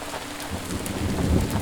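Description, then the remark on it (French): Steady rain hisses across the whole moment over a forest, heard from shelter in a cave, while a deep, rolling rumble of thunder swells underneath in the second half, a continuous storm with no voices. “Tu écoutes le tonnerre et tu regardes les éclairs.”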